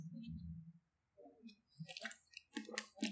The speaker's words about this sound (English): Sorry, drinking water.